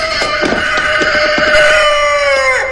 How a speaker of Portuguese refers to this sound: Tudo bem, Galo, eu já acordei.